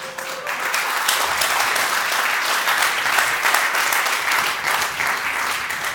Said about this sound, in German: Endlich kriege ich auch Applaus.